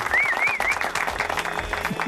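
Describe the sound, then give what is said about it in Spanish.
An audience breaks into applause for American filmmaker Steven Spielberg: dense, steady clapping that holds at full strength for the whole stretch, with a short warbling whistle riding over it near the start. “Steven, un aplauso para Steven.”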